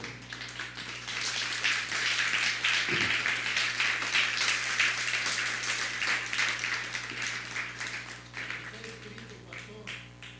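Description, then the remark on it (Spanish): An audience at a religious service breaks into sustained applause for God (the Eternal), dense clapping filling the room for about ten seconds before gradually thinning out, with a steady low hum underneath. “Dele un fuerte aplauso al Eterno.”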